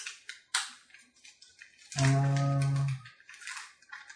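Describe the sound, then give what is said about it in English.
Rustling and clicking of board game pieces and cards being shuffled, in scattered bursts, briefly interrupted by a drawn-out hum from a voice before the shuffling resumes. “So, I'm just going to shuffle up a few things here.”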